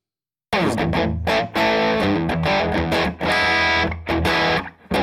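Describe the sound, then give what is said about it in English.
A loud, overdriven electric guitar plays dense, sustained chords through a delay effect and a Two-Rock amp, with repeating echoes stacking into a thick, echoplex-like wash. It cuts off briefly a few times before resuming. “it starts to get that echoplex sort of a thing that he would get going sometimes with his amp where it was like he was playing the echo too and it sounded like almost another guitar as opposed to an echo or something.”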